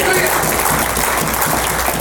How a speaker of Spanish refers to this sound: Denle el aplauso fuerte al Señor, amén.